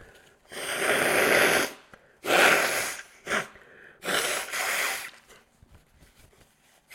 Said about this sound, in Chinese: 不好意思，我再擤一下鼻涕。